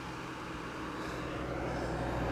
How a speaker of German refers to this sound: Es ist der Wanderbus. Ja. Der fährt von der Wochenbrunner Alm zum Hüttlingparkplatz. Und zum Hintersteiner See.